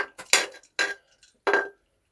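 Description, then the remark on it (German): Three sharp clinks of glasses knocking together in a toast, spaced unevenly across a couple of seconds, each ringing briefly before fading, with no voices. “Prost.”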